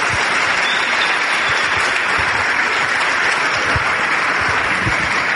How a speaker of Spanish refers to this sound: Dale un aplauso porque eso es impresionante.